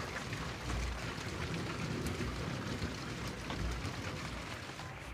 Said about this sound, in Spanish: Y hoy es un buen día para empezar porque está lloviendo.